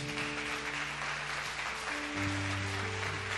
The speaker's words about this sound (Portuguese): Vamos aplaudir o Senhor bem forte?